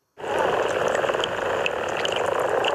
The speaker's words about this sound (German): Mit dem Gurren locken die Froschmännchen in den Teich die Weibli an. Weil für die Amphibien, dazu gehören unter anderem Frösche, Kröten und Mölch, hat jetzt die Paarungszeit gestartet.